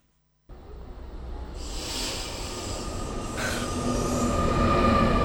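A regional train pulls into a station, its rumble and hiss swelling steadily louder after a sudden start, with a thin metallic squeal of wheels or brakes running through it. No one speaks.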